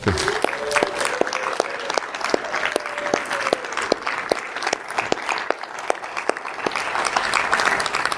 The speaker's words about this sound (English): Big round of applause.